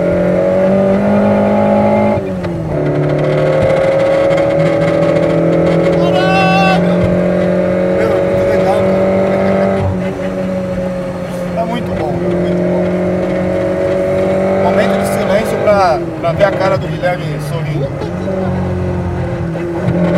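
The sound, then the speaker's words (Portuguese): A car engine runs steadily and loudly for the whole stretch, a constant humming drone whose pitch dips briefly a couple of times as the revs shift slightly; the car is running after a part was fitted to fix an oil leak. “Tudo a gente queria ver o carro funcionar, Coloquei a porta, beleza, o carro funcionando.”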